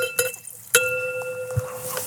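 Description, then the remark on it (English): Two glassy clinks of a bottle of Gamay wine against a glass, each leaving a bright ringing tone that lingers and slowly fades, with soft background noise and no voices. “Are we going to open a bottle of your wine or not?”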